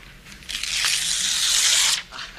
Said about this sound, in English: Now, I want you to rip out that page. Go on. Rip out the entire page. You heard me. Rip it out. Rip it out. Come on. Rip it out.